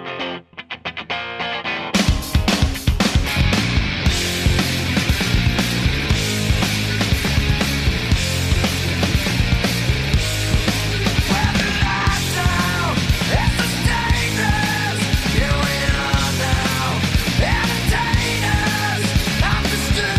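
A loud, distorted grunge rock song kicks in after a brief quieter guitar intro, with heavy drums pounding steadily and dense fuzzy guitars filling the mix throughout.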